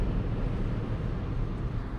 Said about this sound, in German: jetzt zum Beispiel überhole ich einen LKW. Selbst von 110 auf 130 Kilometer beschleunigt der Wagen nochmal ordentlich. Also man braucht keine Angst haben, dass die Leute hinter einem unruhig werden. Verhält sich wie ein ganz normales Auto.